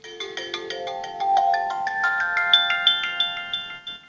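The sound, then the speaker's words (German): A mobile phone ringtone plays a quick, bright melodic sequence of chiming notes that climb upward in steady rhythmic pulses, clear with no one talking. “Mein Lieblingsgeräusch ist mein Handy klingeln.”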